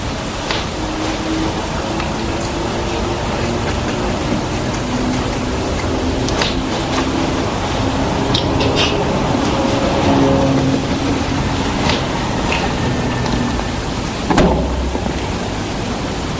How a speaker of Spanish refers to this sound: Eh, vamos con, esta psicofonía que realmente creo que es eh, la más impactante de todas las que se pueden escuchar de Belchite.